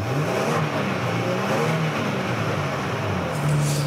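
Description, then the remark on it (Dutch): The engine of the top version of a car revs steadily with a low, rumbling drone, its pitch rising and falling slightly, then swelling louder near the end. No one speaks. “Ja, dat, geluid vond ik niet heel, nee, eh, ik niet heel warm van of zo.”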